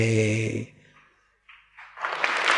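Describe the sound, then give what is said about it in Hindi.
A man's voice speaks briefly, then after a short quiet pause a dense burst of audience clapping swells up and continues to the end, a bright, crackling wash of many hands. “ताली क्यों बजाते हैं ताली नहीं बजाते बेटे ताली नहीं बजाते नेता के लिए रखो ताली ताली में क्रिया शक्ति होकर हमारी एकाग्रता बिखर जाती है मूर्ख लोग होते ना बार बार ताली बजाते जरा जरा बात में ताली बजाते कम अक्कल के लोग बुद्धिमान कभी कभी धीरे से कर देते”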